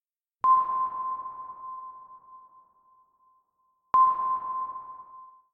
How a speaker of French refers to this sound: cette note de piano évoquant le sous-marin que … a mis au point dans une cabine appelée Leslie